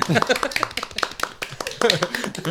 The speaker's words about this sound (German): Und, ähm, okay, sorry, das Klatschen hat sich erst angehört wie so Vögel.